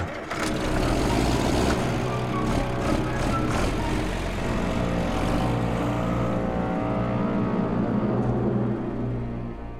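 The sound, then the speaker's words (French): A vehicle's engine rumbles steadily as men climb back aboard and drive off toward Jonestown, a low droning motor sound that holds for several seconds before easing off slightly at the very end, with no voices. “Puis, au lieu de forcer la porte de l'avion et courir pour rattraper les fuyards, les hommes remontent à bord de leur véhicule et repartent en direction de Jonestown.”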